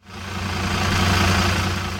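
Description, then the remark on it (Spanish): A bus engine idles steadily with a low, throbbing rumble and broad mechanical hiss, fairly loud, holding constant for about two seconds with no voices. “Tras comprar unos billetes de autobús, al día siguiente la anciana se va a visitar a su hermana.”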